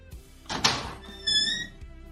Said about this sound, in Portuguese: Eu me viro e abro a porta novamente, que eu nem tinha me afastado muito, só procurei um local sem ninguém. Eu já abro a porta novamente.